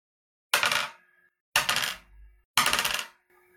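Dice clatter across a table three times in quick succession, rolled for damage in a game, each roll a sharp bright rattle that tumbles briefly and settles, fairly loud with quiet gaps between.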